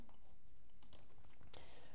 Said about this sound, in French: Donc il faut savoir que dans, je fais une pause pour boire un coup,